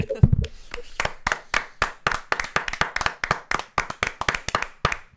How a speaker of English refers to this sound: I guess now we're leading into our next part in which we give a fucking applause because, of course, he deserves it from us, right, guys? It's so yes, it's right. time to applaud Snyder, everybody.